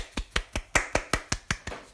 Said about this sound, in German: Das verdient einen kleinen Applaus. Kommt.